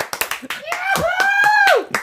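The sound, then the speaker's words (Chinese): Hands clapping in a short burst of applause after a reading, sharp uneven claps running throughout, while a voice lets out a sustained, rising-then-falling vocal sound over the middle of the clapping. “非常精彩的演绎，让我们再次以掌声来，掌声拍手。”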